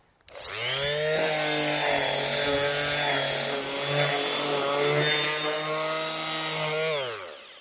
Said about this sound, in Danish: Så er jeg faktisk færdig med at slibe mit bord. Jeg har fået slebet det tre gange, så nu skal jeg lige have tørret af med en våd klud, og så skal jeg give det olie.